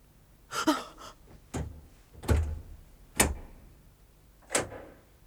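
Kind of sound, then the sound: household object, door being opened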